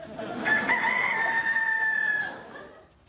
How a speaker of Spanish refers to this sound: ¿Qué es ese ruido? Tú. Es la pollita. Está sufriendo algunos cambios. ¿Qué clase de cambios? Bueno, el veterinario cree que se está convirtiendo en un gallo.